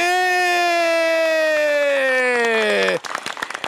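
Audience applause and cheering at a Happy Hour at Casa Operim in São Paulo during the show Fala Carlão: a single voice lets out a long, drawn-out cheer that slowly falls in pitch, with brisk clapping underneath; the shout cuts off and a short burst of applause continues alone.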